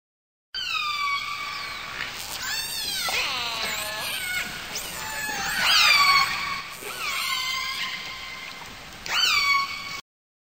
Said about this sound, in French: mais euh, mais ça fait ouais, un espèce de mix de, de clics et de sifflements. Et voilà des bruits d'orque.